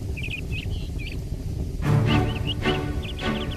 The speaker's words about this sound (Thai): วันไฟนั้นลอยจนถึงรังนกเหยี่ยวลูกนก เมื่อได้กลิ่นควันก็สำลักด้วยอย่างเล็กนักพวกมันพากันร้องขึ้นระงม